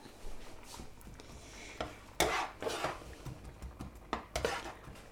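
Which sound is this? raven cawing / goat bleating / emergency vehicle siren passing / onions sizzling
onions sizzling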